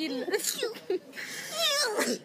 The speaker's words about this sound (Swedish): Prosit gumman.